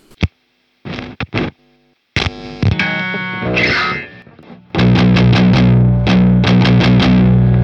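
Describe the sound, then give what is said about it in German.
Heavily distorted electric guitar tuned low, starting with a few short stabs and a sustained chord, then settling into loud, driving palm-muted riffing with rhythmic chugs. “Ihr habt schon gemerkt, wir sind heute in einer sehr tiefen Stimmung unterwegs.”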